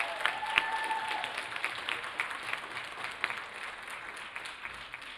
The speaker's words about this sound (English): Let's give another round of applause for Elsa Dance and for all of the wonderful groups that are talking tonight.